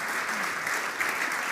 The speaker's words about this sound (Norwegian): Dere kan komme opp nå, gutter. Nyklipt og fine. Gi dem en ny applaus, da. Takk.